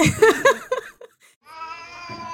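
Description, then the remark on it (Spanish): A cat meows in a few quick, choppy bursts, pauses briefly, then lets out a long, drawn-out, steady meow. No one speaks. “Explícame por qué tenía un gato en el cajón.”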